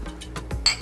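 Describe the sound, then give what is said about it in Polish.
Mustard-jar drinking glasses clink together in a toast: one bright, ringing tap near the end of a short moment, with no one talking over it. “A, no właśnie, na zdrowie.”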